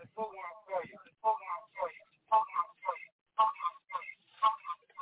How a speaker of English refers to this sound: You got us playing in the background? Hold on, let me get away from these other phones. My bad.